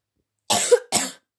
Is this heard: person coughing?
yes